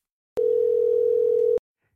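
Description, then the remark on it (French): A steady telephone tone of an outgoing call to Brussels sounds once, holding a single pitch for just over a second before cutting off abruptly, clear with no voices. “J'ai voulu en savoir plus et je l'ai appelé au téléphone à Bruxelles.”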